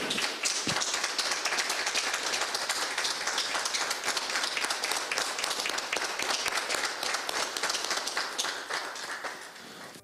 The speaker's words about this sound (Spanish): A continuación solicitamos a diputadas y diputados presentes, así como a nuestros invitados, proceder a la revelación de la escultura. A la cuenta de tres. Una, dos, tres. Fuerte el aplauso.